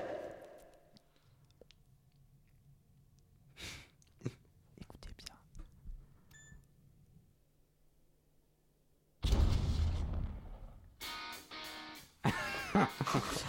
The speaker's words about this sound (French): Il y a une balle qui est tirée. Non, c'est une explosion. Une explosion.